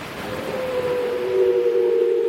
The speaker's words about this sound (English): It was answered from the fog by one of the most appalling steam sirens I'd ever heard.